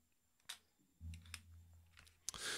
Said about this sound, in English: doing some like old school typewriter or calculator thing right now. I don't know what it is, but I hear like clickety clack and like.